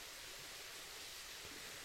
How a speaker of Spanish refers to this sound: Ahora sumérgete más en el sonido de la quebrada. Siente como cada gota de agua que cae es como una caricia suave que despierta tus sentidos y purifica tu ser.